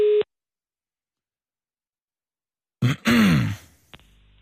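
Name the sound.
telephone call ringing tone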